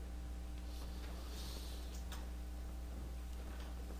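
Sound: clock ticking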